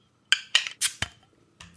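A few sharp metallic clicks and clinks, then a short hissing pop as a beer bottle cap is pried off with a bottle opener, fairly loud, with no talking.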